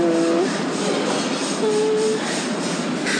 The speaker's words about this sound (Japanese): I'm all here with my with my suitcase なんかすごい洗練された感じなのよ私こんなスーツケースなんて引きずっていっていいのかなあ